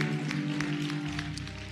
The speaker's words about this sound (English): And then to his beautiful wife, Lady Scott, give her a big hand clap.